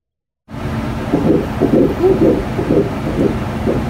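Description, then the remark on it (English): A fetal heartbeat on an ultrasound monitor: fast, steady whooshing pulses over a constant hiss of static, starting abruptly after a moment of silence and continuing evenly. “If you haven't heard a fetal heartbeat, here is a fetal heartbeat from.”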